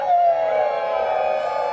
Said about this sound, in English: Cheers, everybody. Holler in this way. One, two, three, holler.